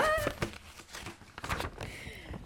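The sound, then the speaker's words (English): Paper crinkling and rustling in several quick, uneven bursts as the paper is handed over to another person, with a brief vocal sound at the start and faint voices underneath. “I'm just going to say it and then hand paper”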